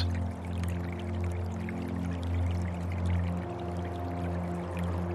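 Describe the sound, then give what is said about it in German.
Gentle, steady splashing and trickling of a small river at the end of a street on a dark, silent night runs continuously for the whole clip, soft and even with a low hum beneath it and no voices. “Mittlerweile ist sein leises Plätschern zu hören.”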